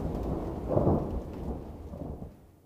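A low rumble of thunder swells and rolls through steady rain, peaking early and then fading away as the downpour continues to hiss in the background.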